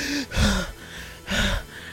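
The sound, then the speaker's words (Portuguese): A voice imitates panting with two loud, breathy gasps about a second apart, each a sharp rushing inhale with a slight voiced edge. “Ofegante.”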